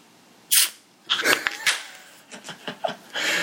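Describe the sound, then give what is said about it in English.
A can of Molson Canadian beer cracks open with a sharp, fizzy hiss, followed by a cluster of clicks and slurping gulps as it is drunk, then a few softer swallows and another brief fizz, in Grande Prairie, Alberta, on 13 July 2015. “it's the sound of … drinking a Molson Canadian”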